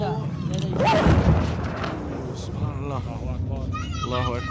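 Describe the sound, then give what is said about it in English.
A powerful airstrike explosion hits a couple of meters in front, booming with a deep, sustained rumble, followed by a lingering roar as agitated voices and a child call out over it, with a plane passing overhead. “a strike hits like a couple meters in front of us.”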